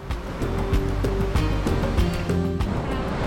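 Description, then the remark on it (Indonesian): Heavy ocean waves churn and splash in a constant, loud roar at Tanjung Binarean, with bursts of spray breaking through and a low engine-like drone running steadily underneath. “Ah, ombaknya gede banget, tapi untung sekarang kita sudah sampai di Tanjung Binarean dengan selamat.”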